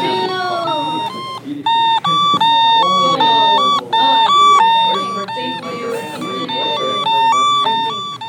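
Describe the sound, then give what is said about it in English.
A voice imitates an ambulance siren driving in front of a house, loudly repeating a two-tone high-low wail in a steady rhythm that keeps alternating throughout. “the ambulance keeps driving in front of your house.”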